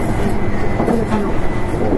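A Nankai 8300 series train on an airport express service from Namba to Rinku Town runs steadily on rails, a continuous low rumble with rhythmic wheel clatter and faint metallic squeals riding above it, loud and unbroken with no voices.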